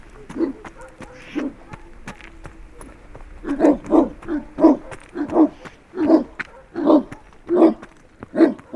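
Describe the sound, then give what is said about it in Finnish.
Three black, lion-sized shepherd dogs appearing out of the darkness bark and growl aggressively, a few scattered harsh barks building into a steady, rapid run of loud, throaty barks with no voices. “Pimeydestä ilmestyy kolme mustaa, leijonan kokoista paimenkoiraa.”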